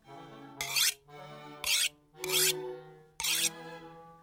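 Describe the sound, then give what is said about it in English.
A knife is sharpened in four quick scraping strokes, each a harsh, bright rasp with a steady irregular rhythm, over a faint low hum and no voices. “Just listen how he is sharpening his knife.”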